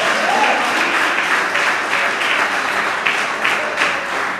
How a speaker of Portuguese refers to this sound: Você pode aplaudir a Ele.